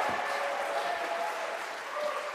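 A crowd claps steadily for a couple of seconds, a dense, even wash of applause from many hands with no voices standing out.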